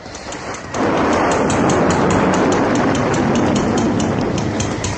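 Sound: thunder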